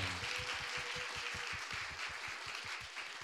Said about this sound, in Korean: 네. 그럼 박수 한번 좀 부탁드리겠습니다.